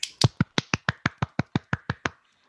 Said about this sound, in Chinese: 我们的传统， 鼓掌。